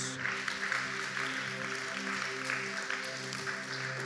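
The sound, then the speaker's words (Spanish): Steady applause from a church audience glorifying God, a dense continuous patter of many hands clapping over about four seconds, with sustained tones, maybe a keyboard, held underneath. “Podemos glorificar el nombre de Dios con un fuerte aplauso.”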